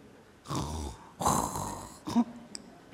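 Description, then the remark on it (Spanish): A voice mimics the snoring of someone who has fallen asleep, with two drawn-out, rasping snores, each a rough inhale-like rumble, followed by a short snort and a faint click, moderately loud. “Ya estás dormido, roncando, ya te levantas a las ocho de la mañana.”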